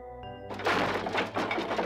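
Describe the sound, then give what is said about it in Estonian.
A low sustained hum is abruptly swallowed by a loud burst of something in a guest room breaking and shattering into pieces, then a louder crash and another, with clattering, crashing debris continuing in uneven waves to the end. “külaliste toas purunes miski kildudeks. siis kostis valjem mürtsakas ja veel üks.”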